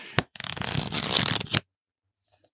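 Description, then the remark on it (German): A quick snap, then a fast, papery flutter of the pages of Michael Caine's book on acting, 'Weniger ist mehr', being riffled for just over a second, ending in a sharp slap, followed by a faint brief rustle. “Er kann besser Bücher durchdribbeln.”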